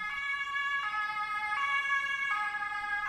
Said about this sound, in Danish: Der er meget trafik. En ambulance suser gennem gaden med fuld udrykning.